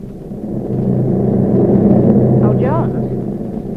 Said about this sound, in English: Taking care of them is an Army flight nurse. The big plane is flying as high as it can without requiring oxygen, and the nurse calms her patients and speaks to her aides.